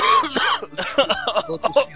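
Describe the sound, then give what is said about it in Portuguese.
A loud fit of coughing: several harsh, rough bursts in quick succession with brief gaps between them, and no talking over them. “Agora foi de verdade a tosse”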